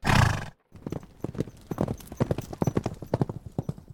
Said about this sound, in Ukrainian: опустив повід, і кін плавно завернув у вулицю.